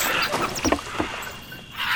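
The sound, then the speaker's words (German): A small wooden boat creaks and rocks on the water, with sloshing splashes and knocks against the hull, fairly loud, no voices present. “Sie kippen noch das ganze Boot um.”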